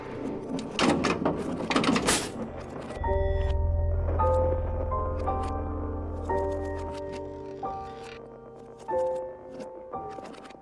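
A top drawer slides open with a burst of wooden clattering and rummaging for a couple of seconds as someone searches it for something to write with, then gives way to a soft melodic tune over a low hum.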